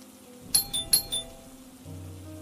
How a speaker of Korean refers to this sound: A의 생일날 난 조금 이른 시간에 A의 집으로 가서 초인종을 눌렀다.